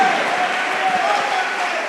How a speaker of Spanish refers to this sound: Dale unas alabanzas, unos gritos, aplausos, gratitud, alguien que diga gracias Señor, es bueno alabarte.